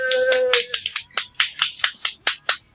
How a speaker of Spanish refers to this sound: bueno, pues, solo, aplaudo yo